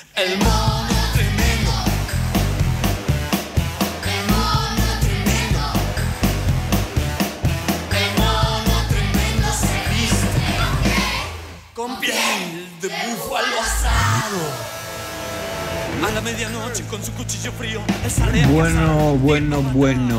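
An Argentine band's song plays loud, with a steady driving beat and vocal-like melodic lines, briefly dropping out near the middle before the music comes back in full.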